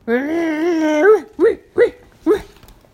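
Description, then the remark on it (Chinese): A person imitates a dog: a drawn-out, wavering growl lasting about a second, followed by three short, sharp barks spaced unevenly, all fairly loud and with no other sounds. “玛莎赶紧跑到厨房，她大声的汪汪叫，开始咆哮，试图摆出最凶狠的模样。”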